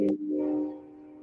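passing train

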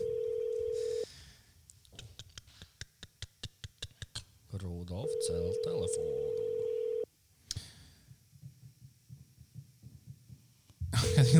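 phone call ringing

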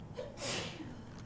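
sneeze

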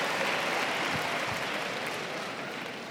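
audience clapping

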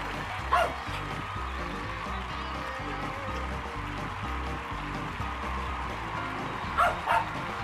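dogs barking

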